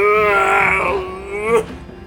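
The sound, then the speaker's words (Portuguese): A drawn-out, moaning werewolf grunt coming from behind the woods, voiced and tonal, sliding slowly downward in pitch for over a second before ending in a short, rough burst, like a voice imitating a beast. “De repente, um grunhido, um barulho que vinha por trás daquela mata que havia ali também.”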